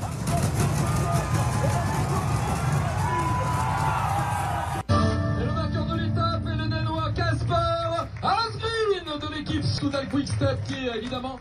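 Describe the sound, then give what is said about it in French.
A dense, roaring crowd with cheering and passing vehicle rumble at the finish line of the 18th stage of a cycling race in Bourg-en-Bresse for several seconds, then an abrupt cut to a loud, echoing voice over a public address system above the continuing crowd noise. “Je vous propose d'écouter l'ambiance à l'arrivée de cette 18e étape à Bourg-en-Bresse.”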